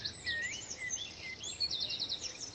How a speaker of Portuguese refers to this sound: uma praia onde é possível ouvir os passarinhos.